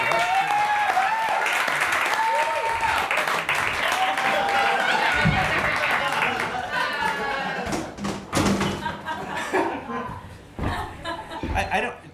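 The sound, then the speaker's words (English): Steady audience applause for Cash Levy, loud and continuous, mixed with chuckles and scattered laughter, then thins into irregular claps and a few cheers toward the end. “I know Well, you're then trying- don't, because we need to give it up for Cash Levy.”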